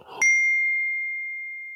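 Glasses clink together once in a toast, giving a bright, high ring that sustains and fades slowly for over a second, with faint rustling just before the strike and no talking.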